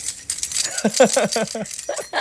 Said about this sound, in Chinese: 这是我们那个，这个是机车机车钥匙的摇动声啊， 没错， 代表说我们有收到赞助，这样 代表我们可能有一天可以脱离机车钥匙